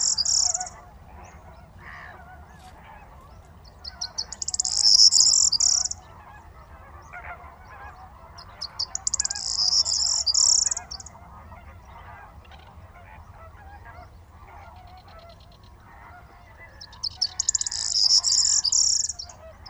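A large flock of greater flamingos keeps up a steady, goose-like murmuring and honking at the sea dike in the Camargue, France, at 6:30 in the morning on 23 March 2019, while a corn bunting perched on a tamarisk breaks in with three short, high, jangling bursts of song.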